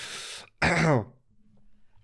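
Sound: suppressed cough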